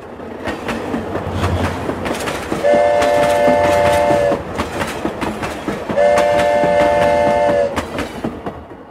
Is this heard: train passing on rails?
yes